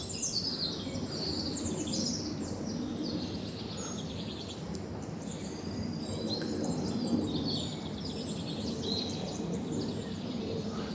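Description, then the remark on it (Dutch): A busy chorus of many birds singing social songs together at once, not alarm calls, a dense overlapping mix of chirps and calls, with a steady low rumble of ambient noise underneath. “Heel leuk is dus, wat we dus nu horen, je hoort dus, al, je hoort dus iedereen die zingt nu op zijn sociaalst.”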